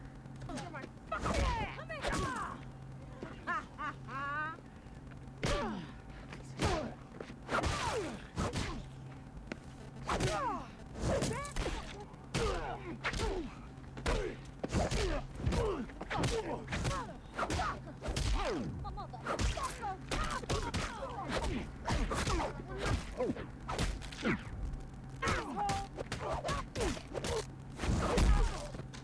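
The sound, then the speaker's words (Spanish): A rapid barrage of sharp punches and kicks from a film fight scene, including the kick that kills a man, dozens of loud whip-like smacks and thuds landing in quick irregular bursts over a low steady hum. “La patada es la que lo mata.”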